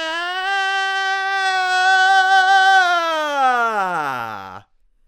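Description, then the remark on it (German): A single voice in a vocal exercise holds a long, nasal, whiny wail imitating a crying baby, stretching the sound wide. It stays steady and fairly loud for about four seconds before sliding down in pitch and stopping abruptly. “Alles, was ich dabei mache, ist dieses Babyweingequäke bereitziehen.”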